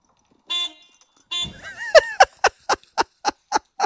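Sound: car horn honking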